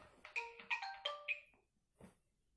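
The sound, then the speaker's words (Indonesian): A bright electronic phone-style alarm plays a quick melodic run of several sustained tones, loud, then cuts off; a brief soft noise follows after a short pause. “aduh alarm gue bunyi maaf ya guys emang kalau niat itu harus ada bantuan dari mana-mana biar beneran bangun”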